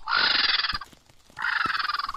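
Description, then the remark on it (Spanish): Vultures calling in the Sierra de Guara, comarca de la Hoya de Huesca, near the village of Santa Cilia de Panzano: two loud, harsh, rapidly rattling bursts, each under a second long, separated by a brief pause, with no talking. “Estamos en la Sierra de Guara, comarca de la Hoya de Huesca, muy cerca de la aldea de Santa Cilia de Panzano, y eso que escucháis son buitres.”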